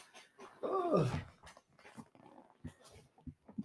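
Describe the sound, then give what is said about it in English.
A dog drinks water with a string of short wet lapping sounds in uneven rhythm, preceded by a brief whiny, whimper-like tone. No one speaks. “Sorry as you can hear, it's my dog fucking drinking water.”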